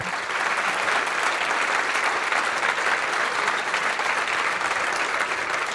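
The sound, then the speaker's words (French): Sustained audience applause at a conference for the roughly 60 to 65 people who spoke there, a dense, steady wash of many hands clapping at once, loud and even throughout with no voices standing out. “Donc euh, moi, je voudrais bien que vous applaudissiez tous les gens qui ont parlé pendant cette conf.”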